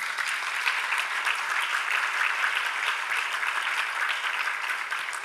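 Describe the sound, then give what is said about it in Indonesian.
A crowd claps steadily and loudly for several seconds, a dense wash of many hands with no pauses and no voices rising above it. “Mana tepuk tangannya?”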